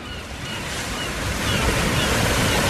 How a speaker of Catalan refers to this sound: Escolta, el sents? Sí, és el so del mar.